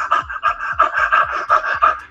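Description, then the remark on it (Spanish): A person imitates a dog's panting: quick, rhythmic huffs of breath, about eight in a couple of seconds, fairly loud, with no talking. “Entonces, si uno presta atención a esa respiración, a ese ciclo ventilatorio, a la respiración”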